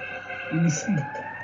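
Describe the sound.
An ambulance or fire engine siren wails steadily in the background, its sustained tones holding throughout, while a voice speaks briefly over it near the middle.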